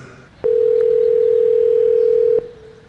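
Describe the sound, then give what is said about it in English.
A single steady electronic ring tone on the phone line, one unbroken hum lasting about two seconds against faint background hiss, heard through the handset as a call to a small restaurant connects. “Let's say you want to call a restaurant, but maybe it's a small restaurant which is not easily available to book online.”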